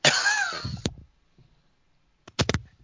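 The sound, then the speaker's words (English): A person who is sick coughs: a harsh cough bursts out and lingers for nearly a second, then after a short silence a quick cluster of sharper coughs follows. No one speaks. “Uh, hold on a second, I'm gonna like I'm gonna cough”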